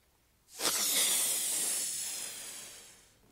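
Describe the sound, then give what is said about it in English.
A latex balloon is inflated with a steady rush of air: a sudden loud, bright hiss that holds for about two and a half seconds, then slowly fades. No one speaks. “You see, I can take the air in this room and put it into here.”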